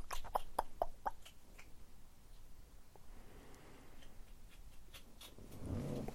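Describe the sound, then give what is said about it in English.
A pet crunches dry kibble in a quick run of sharp, clicky bites early on, then scattered softer crunches over a low, steady background. “He's now having some crunchies, some dry food, having a big old crunch.”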